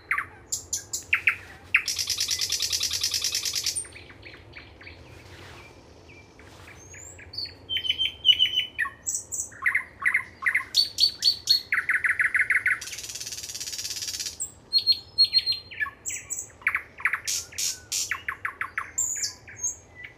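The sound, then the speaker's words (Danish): A nightingale sings loud, cycling through varied phrases of rapid repeated notes, sharp whistles and harsh buzzing rattles, with short pauses between bursts and no voices, in a marsh in Denmark. “I denne periode og frem til Sankt Hans den 23. juni er der gang i nattergalen i vore moser.”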